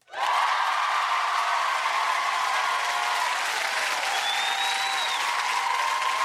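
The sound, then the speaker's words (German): A crowd bursts into loud, sustained applause with cheering, a dense steady wash of clapping that holds for about six seconds, with a few whistles or whoops rising above it. “ich behaupte mal, dass wenn du ein Grusel-Horror-Conjuring-Jumpscare-Fan bist, dann hast du jetzt einen Grund zum Jubeln.”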